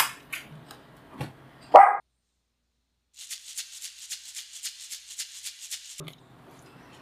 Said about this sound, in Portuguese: Vamos aproveitar que essas cachorras estão tá latindo já no final.